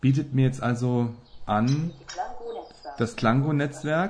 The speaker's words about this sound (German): Das Ganze ist untermalt mit diversen Soundschemata. Ich habe jetzt hier mal Natur drin, Vogelgeräusche, man hört es im Hintergrund.